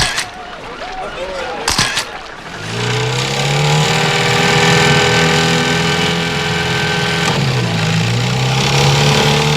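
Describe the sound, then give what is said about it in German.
A motorboat engine cranks over after a few short clunks, then catches and settles into a loud, steady roar with a slight dip and rise in pitch partway through. “wirf den Motor an.”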